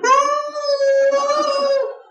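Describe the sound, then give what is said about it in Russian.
A person's voice imitates a howl: one long, steady, wailing tone held for about two seconds, loud, with a rich harmonic quality and a slight fade at the end. “И он воет два часа.”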